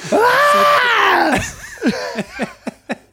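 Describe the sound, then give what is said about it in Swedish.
A voice imitates the loud, exaggerated wailing of the speaker's own heavy crying: a long, sustained high cry for over a second, then a string of short, sobbing bursts that grow more broken. “Armarna och upp och skrikandes och slängandes.”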